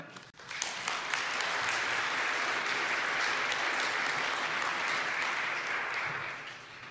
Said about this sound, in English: So thank you very much. Shall we clap for them?